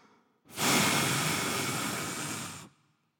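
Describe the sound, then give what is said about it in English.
A single long, forceful exhale, breathy, rushing steadily for about two seconds before cutting off, with quiet moments before and after. “Look, breathing out is like this.”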